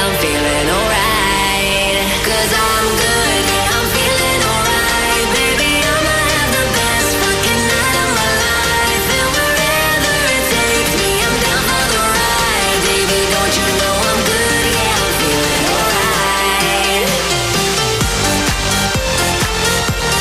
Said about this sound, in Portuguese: gostaria muito de escolher uma música para ouvir aí, …, para já começar o dia em um clima maravilhoso de festa